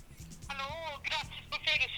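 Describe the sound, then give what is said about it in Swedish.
The speaker's second phone rings with a bright, melodic ringtone, short tonal phrases repeating over a steady low hum, fairly loud and on its own without talking. “Oj, nu ringer det på min andra telefon.”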